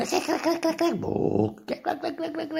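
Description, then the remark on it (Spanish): A voice imitates a cassette game loading, with buzzy, gravelly warbles, a sliding pitch sweep and choppy electronic-like bursts for a couple of seconds. “A lo viejo, a lo arcaico, al cuadraico que tarda tres horas en cargar porque tu cassette no raya y esas cosas.”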